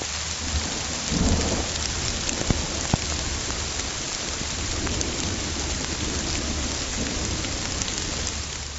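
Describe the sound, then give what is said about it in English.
A heavy rainstorm pours steadily, a dense, continuous hiss of rain with a low rumbling undertone and occasional sharper drips and pops standing out. No one speaks. “Um, so here's an example of geophony. This is a rainstorm.”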